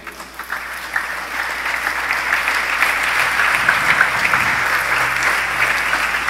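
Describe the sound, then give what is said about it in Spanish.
Sustained audience applause for the Lord, a dense wash of many hands clapping steadily for several seconds at fairly loud, even level, with no voices standing out. “¿No le darías un aplauso al Señor por su guía?”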